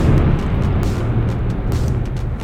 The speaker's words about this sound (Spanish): Ay, la puta que lo parió, eso fue un trueno. Por ahí déjalo porque el trueno puede quedar bien punk.